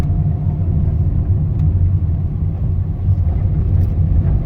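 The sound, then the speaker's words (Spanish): A car on the street, heard as a steady, low engine and road rumble that holds even in loudness throughout, with no voices. “Y al mismo tiempo el carro que venía no venía en su carril.”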